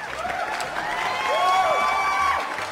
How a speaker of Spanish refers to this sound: ¿Quieres que metamos un aplauso en este momento? normalmente ayuda mucho.